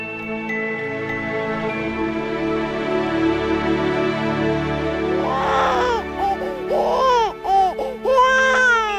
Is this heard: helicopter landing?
no